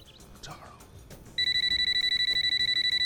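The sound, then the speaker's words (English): A telephone rings with a rapid, pulsing electronic trill, loud, starting partway through and continuing to the end after some faint background movement, and an answering machine picks up. “Hi, can't answer the phone right now.”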